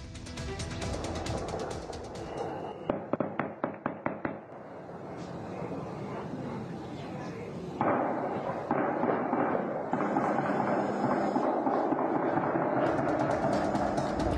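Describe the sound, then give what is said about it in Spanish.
A rapid burst of gunshots, about eight sharp cracks in quick succession, fired at night by armed men at attendees of a cockfighting arena in the community of Las Tinajas, Mexico, rings out over a constant noisy background. Denser, rougher rumbling and crackling continues afterward. “La Fiscalía del Estado ya investiga esta masacre y así se escucharon los balazos anoche.”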